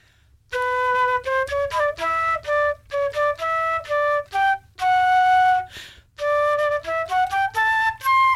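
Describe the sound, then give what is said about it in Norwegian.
A flute plays a short, halting melody from a difficult piece with many sharps, with clear sustained notes in quick phrases, a brief breath-like pause midway, and no one talking over it. “Det er vanskelig å le når man spiller fløyte.”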